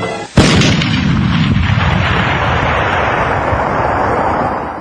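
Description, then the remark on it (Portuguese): A burning depot explodes: a sudden, loud explosion bursts in with a sharp onset, then a heavy, sustained roar and rumble of debris and fire that slowly fades over several seconds. No voices are heard. “Uma explosão se faz ouvir e o depósito voa para os ares.”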